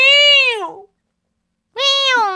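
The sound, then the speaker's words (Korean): A voice gives two drawn-out, nasal, whining cries that sound like a cat's meow. Each one is loud and bends downward in pitch, with a short silence between them. “고양이냐?”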